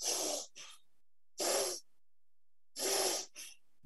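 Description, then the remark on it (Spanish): Quick, forceful breaths in and out through the nose while gripping as if squeezing, three sharp rushing bursts each followed by a brief softer puff, fairly loud with short silent pauses between them and no talking. “Sujetándolo así, simplemente sujetando como si estuvieras apretando, inspiras y expiras por nariz”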